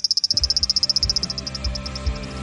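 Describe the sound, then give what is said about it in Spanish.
A frog's rattling, ratchet-like call: a rapid train of sharp, high clicks that gradually slows and softens over a couple of seconds, heard clear over a low background rumble. “analizaron más de 2.000 grabaciones con los sonidos emitidos por estas ranas”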